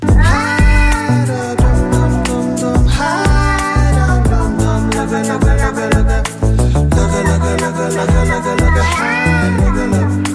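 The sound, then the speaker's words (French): Pitch-corrected cat meows sung as a melody over a loud, full music track with steady beat and bass, the gliding meow phrases repeating throughout. “C'est que ah, c'est un miaulement derrière, un, miaulement un, peu auto peu comme ça.”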